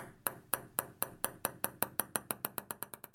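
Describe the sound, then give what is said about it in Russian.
A time-up ping signal marking that time has run out in a timed debate round and the turn passes to the other host: a string of about fifteen bright, ringing pings that gradually speed up, each one sharp and clear, heard alone without any talking. “Этот звук вы услышите, когда время закончится, и ход должен перейти к другому ведущему.”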